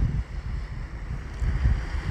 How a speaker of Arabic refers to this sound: جلسة استرخاء جلسة استرخاء على شاطئ وبصوت الموج